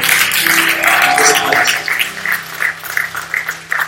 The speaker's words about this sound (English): We'll clap your hands and give him glory.